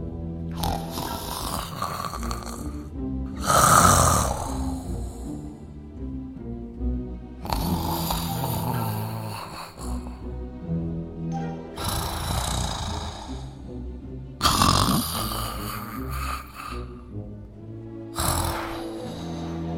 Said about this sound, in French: Comme il n'en pouvait plus de fatigue, l'ogre s'endormit aussitôt, et il se mit à ronfler effroyablement.